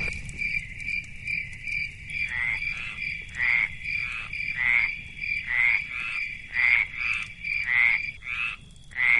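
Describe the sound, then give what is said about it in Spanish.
A steady night chorus of toads croaking in rhythmic bursts, layered over a continuous high chirping of crickets, with a faint rustling background and no voices. “El ruido que salía del coco era de los grillos, sapos, pájaros y otros animales que solo cantan por la noche.”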